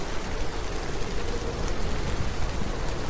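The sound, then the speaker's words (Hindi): Heavy rain pours down steadily during a storm in a jungle, heard while sheltering under a banyan tree, a dense, constant hiss of drops drumming with no breaks and no voices. “लेकिन इस आंधी और बारिश में ऐसे आगे बढ़ते रहना तो संभव नहीं है तो मैं एक बरगद के पेड़ के नीचे खड़ा हो गया बस ऐसे ही मुझे इस तेज बारिश और तूफान से खुद को बचाना होगा”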